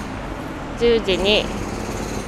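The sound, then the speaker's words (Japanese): Construction jackhammer noise from ongoing construction work rattles steadily in the background one morning as a broad, continuous din, with a person briefly speaking over it partway through. “あちょっと工事しててうるさくてすいませんいつまで続くんだ”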